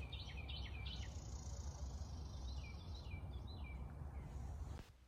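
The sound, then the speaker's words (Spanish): Several small birds chirp in quick, high trills over a steady outdoor hiss, their calls clustered, with a faint continuous insect-like whine in the background before the sound cuts off. “mirar los pajaritos y parece que me vienen a decir gracias.”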